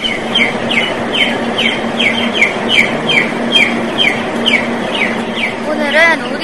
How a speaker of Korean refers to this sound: 네, 근데 아저씨 닭 소리 때문에 정신이 없는데 도대체 닭을 몇 마리나 키우시는 거예요? 각 동마다 5천 수씩 2만 수요. 네, 참 많이 키우시네요.